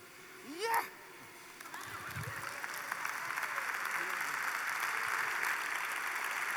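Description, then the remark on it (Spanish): A brief vocal exclamation gives way to an audience clapping at the end of a spoken prayer, the applause swelling quickly into a dense, steady roar of many hands that continues to the end. “Aplaudan, aplaudan, aplaudan, aplaudan.”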